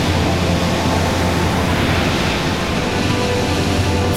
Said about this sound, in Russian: Фома, оглянись! Нас волна накрывает Ребята, держитесь! Давайте руки!